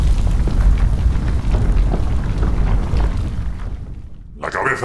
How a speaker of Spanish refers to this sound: percibiendo un lejano estallido de volcanes y terremotos y una enorme fusión electromagnética del Sol.